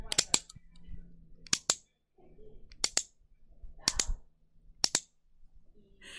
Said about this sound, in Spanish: Y suena así, ¿vale? Voy a apretar el clicker.